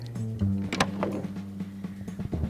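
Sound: office door being opened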